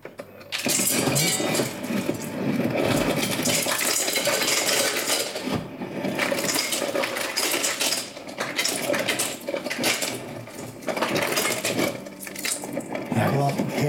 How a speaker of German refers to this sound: Jetzt natürlich auch einen Kühlschrank, der Eis macht.